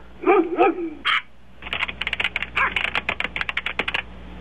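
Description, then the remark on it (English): A couple of short dog barks come first, then a steady burst of rapid clicking keystrokes on a computer keyboard, fairly loud, lasting a few seconds with no one speaking. “What did you just write?”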